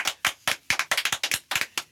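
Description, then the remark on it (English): Quick, sharp hand claps from a few people, fairly loud, coming in a brisk, slightly uneven patter of about a dozen claps over two seconds, with no talking. “Clap it up.”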